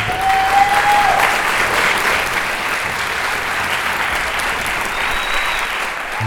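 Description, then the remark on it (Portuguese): An applause sound effect added in editing: a crowd claps in sustained, dense applause, a steady loud wash of hand claps with no break, holding at an even level throughout, with a faint whistle-like tone briefly rising over it. “Se o pessoal da edição puder aí, uma salva de palmas, meu irmão.”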